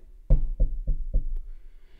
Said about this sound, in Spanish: Y, y nomás sintió que le tocaron la puerta, donde estaba dormido.